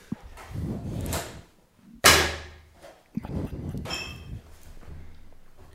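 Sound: opening a beer bottle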